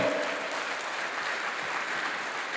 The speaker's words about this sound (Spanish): Entonces da un grito de victoria ese aplauso al Señor.